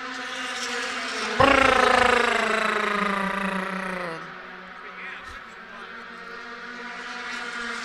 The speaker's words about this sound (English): Damn Indy lights! What the heck?